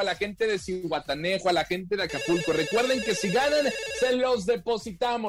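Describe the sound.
A telephone rings for an incoming call with a steady, high electronic trill that continues for several seconds while a man keeps talking over it.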